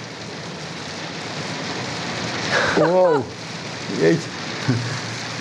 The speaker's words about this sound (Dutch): Nou mensen, wat je nu hoort is een hele harde hagelbui. Ja, nou ja, het, is een mooi geluid toch, als achtergrond. Het zijn dikke stenen.